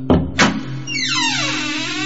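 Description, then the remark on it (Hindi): The door of room 05 in a lodge slams shut with two quick, heavy thuds close together as it is half opened, followed by a steady low hum and a drawn-out, descending eerie whine. No one speaks. “दरवाजा बंद हो गया”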